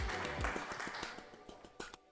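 applause

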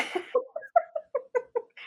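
cat vocalizing

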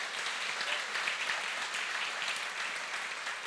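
audience applauding

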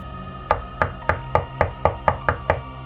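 knocking on a door

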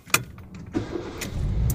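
car engine starting

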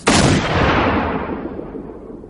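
gunshots

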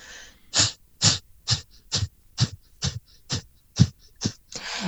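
rapid

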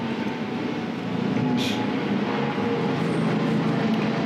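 airplane approaching overhead

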